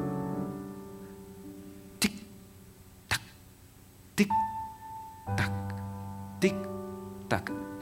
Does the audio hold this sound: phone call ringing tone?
no